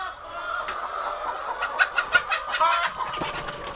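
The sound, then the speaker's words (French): Chickens cluck and call in a busy flock on a farm, with a steady chatter of overlapping bird noises and quick bursts of sharper clucks near the middle, moderately loud. “un oiseau. Je suis attachée maintenant au, bruit, à l'odeur, euh, à leur comportement”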